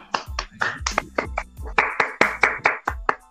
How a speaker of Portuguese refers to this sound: E o currículo dele é gigante, gigante para a gente falar só aqui na apresentação, o grande Zenon. Palmas para ele.